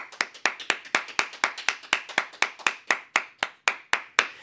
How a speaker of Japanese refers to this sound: 長めの拍手ありがとうございます